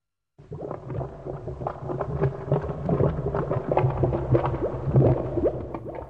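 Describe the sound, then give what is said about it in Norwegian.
A voice imitates mechanical car-repair noises, a steady stream of buzzing, grinding and clunking mouth sounds with rising and falling pitch, fairly loud, running without a break. “Kan du ja, lag litt sånn lyder, da, sånn at det høres ut som du fikser den, sier gangsteren med en penn i Penniplusa.”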